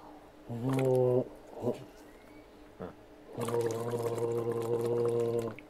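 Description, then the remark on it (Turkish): A voice imitates bubbling as if diving under water, with two wobbly, gargling hums, a short one and then a longer sustained one, fairly loud, with a few brief mouth noises in between. “Hayır fokur diyecek.”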